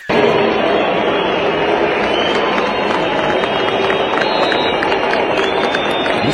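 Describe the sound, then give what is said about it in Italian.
A large stadium crowd in Riyadh, Saudi Arabia, whistles and jeers during a minute of silence for a late Italian football legend at the Italian Supercup final, in a dense, continuous roar, loud and steady throughout with no pause or quiet moment. “Silenzio, nonostante l'autoparlante avesse spiegato le ragioni del momento di raccoglimento, il pubblico arabo ha risposto fischiando.”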